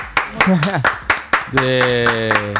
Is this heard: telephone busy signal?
no